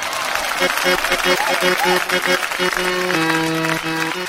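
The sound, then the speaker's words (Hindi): Sustained clapping from a sizable audience at a poetry recital, welcoming poet Prasoon Gupta, fills the whole clip, dense and steady, with a short run of held instrumental notes playing over the applause. “अब हमारी कत्याम शायरी के बाद बारी है कवि प्रसून गुप्ता की तालियां”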